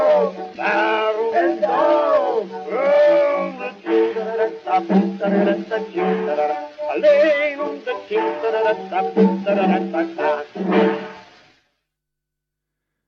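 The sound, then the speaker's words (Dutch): A male singer from Rotterdam performs a lively song with accompaniment, played from a 1910 78 rpm gramophone record, sounding thin and band-limited with no deep bass or high treble, ending abruptly into silence. “hoorde de Rotterdamse zanger … van een 78 toerenplaat uit 1910”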